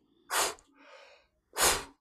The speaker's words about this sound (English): So just just like really big efforts to get rid of offload, as you say, exhale, exhale, get rid of that built-up CO2, and then the sooner you can come back into calm exhaling